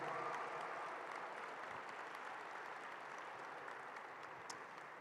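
An audience in the Espíritu Santo auditorium gives a strong round of applause for first-time visitors, clapping steadily for about five seconds, a dense wash of many hands at an even level, with no voices on top.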